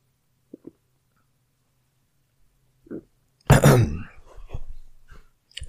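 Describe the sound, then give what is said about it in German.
Someone takes a sip of water: two faint clicks and a soft gulp, then a loud, harsh throat-clearing burst followed by low, rumbling swallowing noises. No one speaks. “Ich muss mal gerade einen Schluck Wasser trinken, sonst klinge ich auch wie Groot.”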